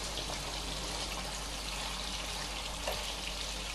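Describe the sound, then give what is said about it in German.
A steady, hissing liquid sound of oil in a frying pan, used to fry small round meatballs, fills the whole stretch, even, with no one talking. “Und zwar habe ich die klein und rund gemacht und in der Pfanne mit ein bisschen mehr Öl, also nicht Öl aus dem Meer, also kein Mix aus dem Golf von Mexiko, sondern etwas mehr Öl, als ich üblicherweise benutze”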